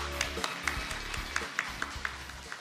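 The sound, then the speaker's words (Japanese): Quiet audience applause at the J-REIT Fan 2018 IR seminar at the Tokyo Stock Exchange, welcoming a presenter from Hoshino Resort Asset Management, made of sparse, distinct claps at a steady, fairly quick pace, sounding thin rather than a full roar, over a low, steady background hum. “大きな拍手お願いいたします”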